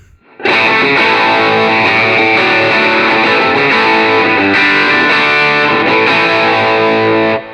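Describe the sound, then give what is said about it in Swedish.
An overdriven electric guitar, with its gain raised to around two o'clock, rings out loud and sustained for about seven seconds. Its gritty, saturated tone holds steady with a few fresh strums along the way, and no voices are present. “Men jag tänker vi drar upp eh, gainen till eh, klockan två där någonstans.”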